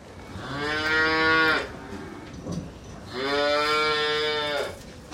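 A cow moos twice, each call long and drawn out with a steady pitch, separated by a short pause. The calls are loud with no speech.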